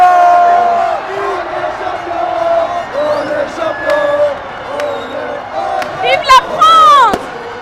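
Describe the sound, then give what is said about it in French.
A large crowd on the Champs-Élysées cheers and shouts continuously on 16 July 2018 as France's national football team players come up the avenue, with voices rising into whistles and shrill bursts of excitement; loud, dense and sustained throughout. “J'étais au milieu de la foule pour raconter en direct la remontée des Champs-Élysées par les joueurs de l'équipe de France de football.”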